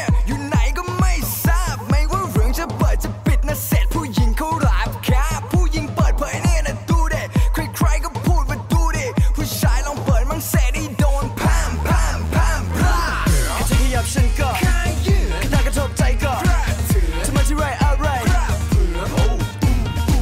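A loud, upbeat Thai electronic pop song plays throughout, driven by a steady thumping beat with bright synth layers and melodic vocal lines over it.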